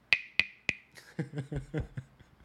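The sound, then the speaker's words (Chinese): Three crisp, hollow knocks on a wooden fish (muyu), struck as a show opening, ring out in a steady, evenly spaced rhythm, each with a bright resonant tone that fades quickly, followed by a person speaking. “刚刚我们使用的开场的方式是打三下木鱼，给大家听听看我的木鱼的声音。”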